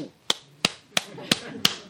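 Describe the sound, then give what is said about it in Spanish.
Five sharp, crisp hand claps at a steady, even pace, each a loud bright snap over a faint murmur of background noise, clapping at a cashier at a shop checkout. “E, entonces aplaudí.”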